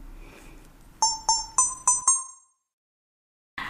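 A brief musical jingle of five bright, bell-like chime notes in quick, even succession, each ringing and decaying, followed by a moment of silence before background sound returns.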